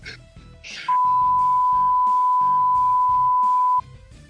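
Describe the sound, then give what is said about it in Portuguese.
A loud, steady censor bleep tone runs for about three seconds, masking someone's speech; muffled talking is audible before and underneath it. “Essa aí, essa aí é, tem que bipar o, foda, o foda é que isso dá processo, né?”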